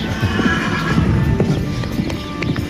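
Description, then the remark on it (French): A horse whinnies over steady clip-clopping hooves on soft ground in a riding arena, with a continuous background hum of activity and no clear talking. “Il y a moins de chevaux dans la carrière, du coup, il fait de clou.”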